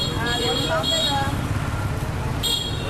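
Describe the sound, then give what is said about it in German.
Dense street traffic in Hanoi, Vietnam, made up mostly of mopeds, with a steady engine rumble and bursts of bright, high-pitched horn toots cutting through the din, fairly loud. “Der Verkehr ist unglaublich. Er setzt sich vor allem aus Mopeds zusammen.”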